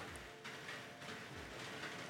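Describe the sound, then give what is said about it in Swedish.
Soft, steady rain patters on a roof, a dense, continuous hiss of countless small drops with no voices, fairly quiet and even throughout. “Och, ja, nu kommer regnet här igen. Man kan höra hur det smattrar mot taket här.”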